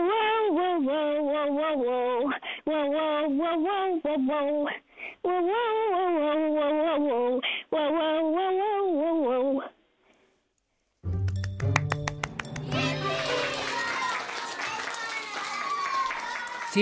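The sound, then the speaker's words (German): A female caller on a phone line barks out a melody like a dog in long, wavering sung phrases over a thin, phone-like line, then a burst of clapping and cheering follows. “bist du bereit? Ja. Dann bell mal los.”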